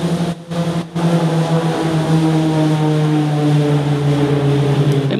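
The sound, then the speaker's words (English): A jet aircraft roars overhead, a loud, steady engine drone with a low humming tone, continuous with no voices, briefly cutting out twice near the start; the sound is heard every day, about ten times a day. “That doesn't really sound like a military jet”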